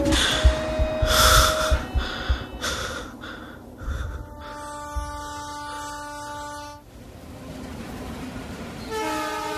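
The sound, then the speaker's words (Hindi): A train rumbles past on railway lines beside a house, shaking a bed, its horn sounding in long steady blasts over the clatter and roar of the cars, with a second horn call near the end. “घर के पास ही railway lines थी जहां से ट्रेन जाते वक्त ऐसे बिस्तर का हिलना लाजमी था”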